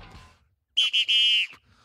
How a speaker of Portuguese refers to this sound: Cada vez que você apita esse negócio, dá vontade de bater um tambor, sabe? Não sou, não sou eu que apito,